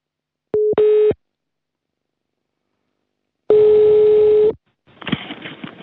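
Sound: telephone call being dialed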